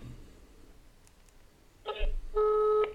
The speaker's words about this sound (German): So, sind wir gespannt. Das Telefon klingelt.